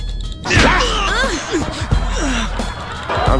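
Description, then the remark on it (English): A sharp slap across a man's face cracks out near the start, followed by gasps and agitated vocal reactions that continue under a busy, noisy background. “First of all, you don't slap a man.”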